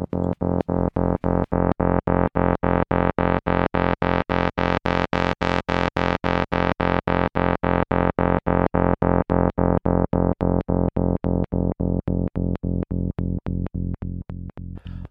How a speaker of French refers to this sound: et on rajoute des petits éléments. Donc par exemple, une basse électronique.